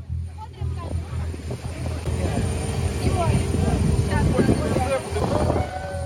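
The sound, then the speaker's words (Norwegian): A steady, rumbling aircraft engine drone fills a busy airport where Ukrainian children stand in a queue, with indistinct voices murmuring in the background throughout. “På flyplassen står smilende ukrainske barn i kø sammen med damen i blå kjole.”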